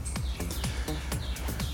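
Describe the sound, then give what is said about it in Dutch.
Crickets chirping in a steady, rhythmic series of short, high-pitched pulses, about five in under two seconds, over a low background hum with no talking. “In plaats van die, die krekels die ik net.”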